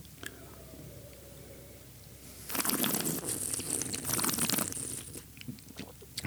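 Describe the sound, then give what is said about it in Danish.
A wet, airy slurp as someone draws air through a mouthful of wine, a hissing, bubbly rush lasting a couple of seconds with a softer trailing gurgle after. “så du har noget inde i munden, og så suger luft ind igennem det”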